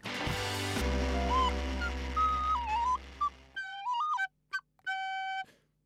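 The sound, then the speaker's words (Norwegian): A flute plays a short wavering melody, first over a low droning musical background, then a few separate sustained notes on their own, fairly clear; the flute playing is on the show Bankebrett on Radio Revolt. “Innimellom så tar jeg pause fra fløytespillingen og hører på bankebrett på Radio Revolt onsdag klokken 19.”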